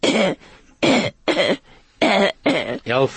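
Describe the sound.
A girl of nearly 11 months imitates a cough, making about five short, voiced coughing bursts in quick, uneven succession, fairly loud, with no talking.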